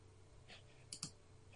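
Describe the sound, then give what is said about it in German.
A computer mouse clicks twice in quick succession against a low, steady background hum, with a soft scraping rustle of the mouse sliding just before. Fairly quiet, no voices. “Du solltest der Maus weniger bewegen, das ist recht laut.”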